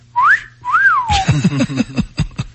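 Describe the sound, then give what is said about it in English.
A person whistles two short tuneful notes, the first rising and the second swooping up then sliding down, fairly loud, followed by a burst of voices. “are you a good whistler?”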